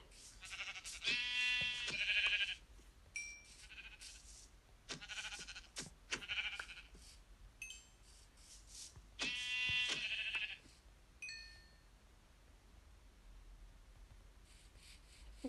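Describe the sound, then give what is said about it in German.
Sheep bleating in a video game as the player goes to kill a brown sheep, several harmonic bleats in bursts, clear, with quieter game sounds and shuffling noises between them. “Okay, dann kill ich noch das braune Schaf.”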